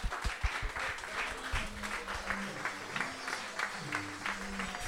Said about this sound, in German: Und deswegen freue ich mich, dass ihr jetzt auch mit einem großen Applaus unseren Head Coach auf der Bühne begrüßen dürft.